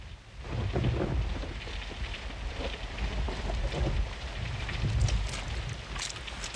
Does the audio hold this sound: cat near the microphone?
no